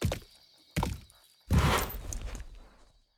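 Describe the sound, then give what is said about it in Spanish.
Hoof sounds of a cowboy's horse drawing nearer: three heavy, thudding hoof-like impacts spaced under a second apart, each louder than the last, the final one longer and fuller before fading out. “Los ruidos del caballo están más cerca.”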